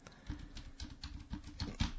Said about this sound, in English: That's right. My mic is so powerful that you can hear me typing on the computer.